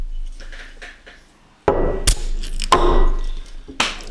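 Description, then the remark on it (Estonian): Clicks and sharp knocks of a lemonade bottle cap being twisted off, several distinct bursts over a couple of seconds, with a brief fizzing rush after the quiet start. No talking. “kork maha. Äh, teine limonaad.”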